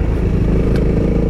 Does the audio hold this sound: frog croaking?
no